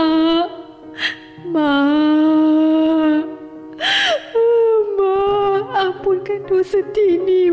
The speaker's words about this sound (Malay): Walaupun hati kami tercuit mendengar tangisannya di luar pintu bilik mayat.